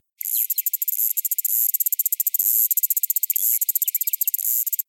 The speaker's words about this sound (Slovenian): Potem pogost tudi je sredozemski škržat, ki ga najdemo na travi in drugih zelenih rastlinah um, na obalnem območju Južne Istre bolj. in se oglaša tak.